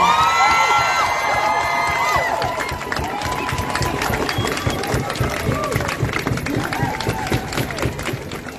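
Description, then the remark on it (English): A crowd at a rally bursts into applause and cheering after a speech, with dense clapping and scattered whoops and shouts filling the whole stretch at a steady, loud level before easing slightly near the end. “Let's give him another round of applause, yeah?”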